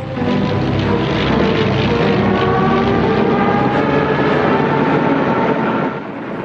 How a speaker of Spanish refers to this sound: Sus cazas y bombarderos acaban con toda oposición.